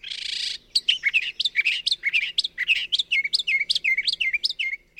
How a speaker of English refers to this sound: You might know the copycat songs of northern mockingbirds.